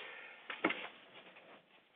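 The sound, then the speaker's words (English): A single sharp sneeze bursts out, quick and explosive, followed by a faint breathy trailing sound against a low hiss. “Number 12, and I'm going to sneeze.”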